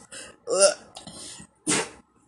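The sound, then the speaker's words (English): A dog sneezes: a few short snuffling, snorting bursts followed by one sharp, breathy sneeze, then quiet. “Oh, you just sneezed on me.”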